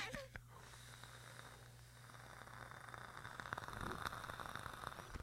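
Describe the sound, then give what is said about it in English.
A steady crackling and sizzling hiss runs for several seconds, with fine popping growing slightly louder toward the end, as a vape tank with Banana Cream in it fires during a long inhale. “Do you hear the crackle?”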